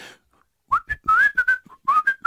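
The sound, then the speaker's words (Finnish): A person whistles a short, lilting melody: a handful of bright notes with quick upward slides, separated by tiny breaths, with no talking around it. “Että mä ajattelin, että se on jotenkin, että vihellellään ja me, tiedätkö, niin kuin seikkaillaan metsässä.”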